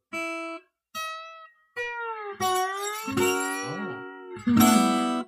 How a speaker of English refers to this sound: Yeah. I have a slide whistle. Let's do the prop. Prop moment.